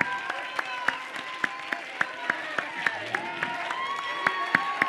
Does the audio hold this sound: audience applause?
yes